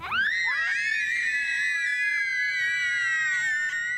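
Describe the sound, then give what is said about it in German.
Small children scream and shriek continuously in a reverberant school gym during a gymnastics class for toddlers, several high voices overlapping loudly for the whole stretch as they romp about. “Claudia Busch ist die Trainerin und lässt die Kleinen auch gerne mal toben”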